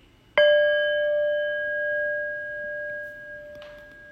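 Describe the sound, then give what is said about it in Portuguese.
A single meditation bell is struck once during a meditation practice, producing a bright, clear ring that sustains and slowly fades over several seconds, with a faint soft rustle near the end. “E eu vou convidar o sino a soar uma vez então, mas continua na postura, com os olhos suavemente fechados.”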